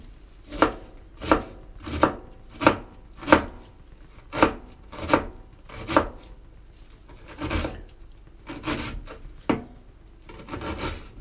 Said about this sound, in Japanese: こうやってあのなんか良くないですかこのまな板のなんかまな板に包丁でこうトントンする音がね入るのってこういわゆる ASMR 的で結構良くないですか僕ねこういうの好きなんですよね